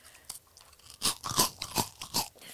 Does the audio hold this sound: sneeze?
no